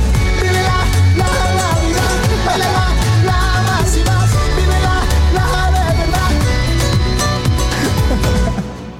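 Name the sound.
song played on radio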